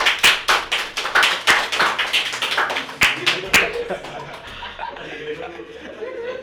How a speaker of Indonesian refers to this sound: oh, tepuk tangan